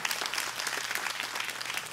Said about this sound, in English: Clap your hands, y'all. This is amazing. amazing.